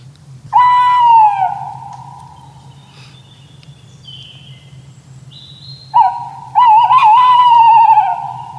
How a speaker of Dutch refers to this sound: nou, en vanaf december, januari hoor je dat geluid van die bosuil. En het is echt, ja, kippenvel. rillingen over je rug. Zou ik het even laten horen?